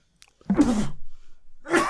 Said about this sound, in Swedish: Nu ska jag nysa.